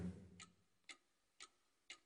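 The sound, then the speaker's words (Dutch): A clock ticks steadily, four crisp, evenly spaced ticks about half a second apart, fairly quiet, with nothing else in the background. “Maar dat weerhield de klok er niet van door te tikken.”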